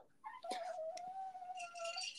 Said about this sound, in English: Did I hear a dog crying? uh, unfortunately, yeah, there's a dog whining next to me. Sorry about that.